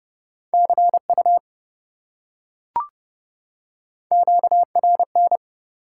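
Fast Morse code at 30 words per minute beeps in a steady mid-pitched tone, two short keyed groups separated by a pause with a single soft click between them; no voices.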